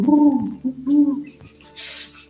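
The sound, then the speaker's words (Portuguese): A voice imitates a pigeon's cooing to converse with a pigeon, with low, warbling, throaty coos in short bursts, fairly loud, followed by a breathy hiss near the end. “E vocês começam a conversar, fazendo barulhos de pomba.”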